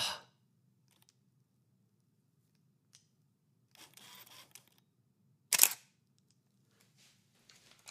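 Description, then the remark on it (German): A DSLR camera's mirror slap and shutter fire in a sharp click, followed seconds later by another louder snap, with softer handling rustles between them. “Ich habe richtig diesen Spiegelschlag vermisst die ganze Zeit.”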